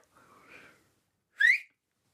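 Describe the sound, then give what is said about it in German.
A soft, breathy rush of air, then a single short, piercing finger whistle made with the right thumb and index finger placed under the tongue, bending upward in pitch, loud, with no talking. “Ich mache das mit Daumen und Zeigefinger von der rechten Hand. Lege ich unter die Zunge.”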